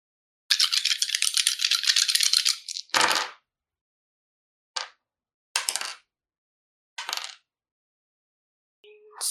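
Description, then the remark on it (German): Dice shaken in a cup for a couple of seconds during a tabletop role-playing game, then thrown down with a sharp clatter, followed by a few scattered clicks as they bounce and settle. Fairly loud, with no talking. “Würfelt man damit den Sneak Damage auch doppelt? Ja. Alle Würfel werden verdoppelt.”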